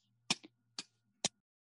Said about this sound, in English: Um, right when they get down there, uh, the score starts doing that ticking noise.